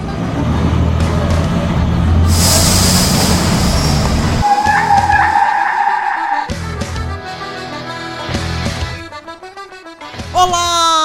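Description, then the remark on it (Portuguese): A heavy vehicle's engine rumbles low and loud, then a sharp burst of air-brake hiss and a high brake squeal as a bus pulls up and stops, followed by musical tones. “A porcaria do ônibus já tá aqui, ó!”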